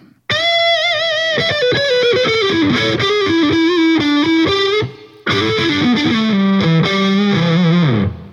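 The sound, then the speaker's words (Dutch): A short, loud new electronic jingle announcing the next segment, with bright, distorted synth melodies, played in two phrases separated by a brief pause, with no voices. “Ja, dat is dus een nieuw geluidje. Dat heb je nog nooit eerder gehoord.”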